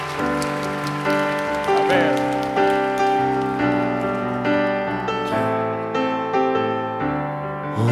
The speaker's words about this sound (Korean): 좋으신 하나님께 다시 한번 우리의 마음을 담아서 감사의 박수 올려드립시다 할렐루야